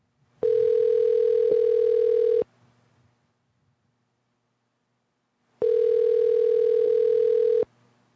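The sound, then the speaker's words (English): Outgoing phone-call ringback: two long, steady buzzing rings of about two seconds each, separated by a few seconds of silence, with a mid-pitched electronic tone and no one talking. “Let's try to call.”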